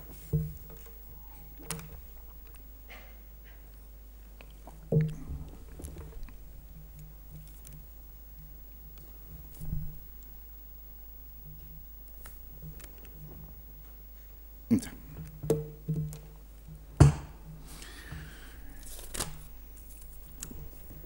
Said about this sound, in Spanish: Me permiten otra vez un sorbo